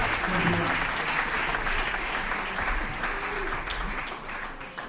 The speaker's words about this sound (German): Ja, und mit Applaus wollen wir sie natürlich hier oben begrüßen.